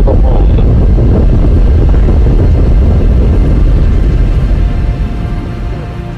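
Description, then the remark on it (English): Rocket engines of Apollo 11 roar at liftoff after the countdown ends, a loud, continuous, deep rumbling blast that fills the whole stretch with no voices, easing off slightly toward the end. “Three, two, one, zero. All engine. And running. Apollo 11. Liftoff. We have a liftoff.”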